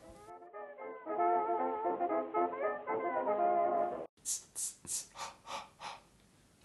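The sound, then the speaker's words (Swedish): A voice whispers a horror movie theme, about six sharp, breathy bursts in a steady rhythm, fairly loud. A sustained, tonal vocal sound comes just before it. “gjorde nu var ju alltså Jason... Mm -hmm temat kan man kalla det”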